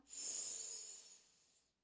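A long, airy inhale through the nose lasting over a second, taken as part of a relaxation breathing exercise, a steady hissing rush of breath that swells quickly and slowly fades out, with no talking.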